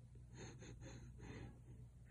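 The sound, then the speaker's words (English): A quick run of short, breathy sniffs, five or six bursts in an uneven rhythm, as someone gleefully sniffs the air while running to a snack hut. No talking, just a low steady hum underneath. “runs to the nearest snack hut, sniffing the air with glee.”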